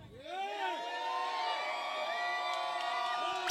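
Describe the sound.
A crowd cheers and whoops loudly, many voices rising together into a sustained roar of excitement that holds steady for a few seconds before cutting off abruptly.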